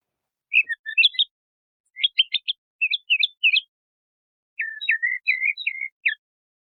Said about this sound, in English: That sounded to me like a tentative bird. Right, yeah, and that tentativeness is a lack of stereotype.